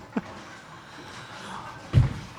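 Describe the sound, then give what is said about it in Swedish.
Bowling balls and pins crashing in a bowling alley, heard in the background while people watch bowling, with a short knock early on and a heavier rumbling crash near the end over a steady hall ambience. “Med det, här, med det här ljudet som ni hör i bakgrunden nu.”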